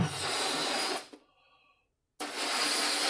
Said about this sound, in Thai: This is the sound of someone's inflating a balloon. That basically means someone is blowing air into a balloon.